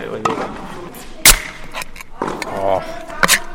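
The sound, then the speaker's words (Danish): A sharp pop of a fresh tube of balls being opened, followed later by a second crisp snap, with a person talking briefly around the sounds. “Jeg har et helt frisk rør bolde nu.”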